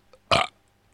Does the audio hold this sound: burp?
yes